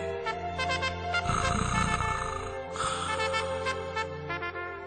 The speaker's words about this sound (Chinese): 说完，熊就睡着了。电话里还传来了呼噜呼噜的声音。